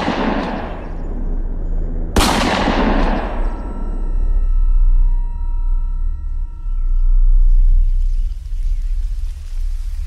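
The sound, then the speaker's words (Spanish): A single loud gunshot, fired by poachers at a large female bear in the thick mountain forests of Asturias, cracks out and rolls away in a long, ringing echo that fades over several seconds, with a low rumbling backdrop and no one talking. “con un disparo desgarrador, con la pérdida de una enorme osa batida de manera furtiva en la espesura de los montes asturianos.”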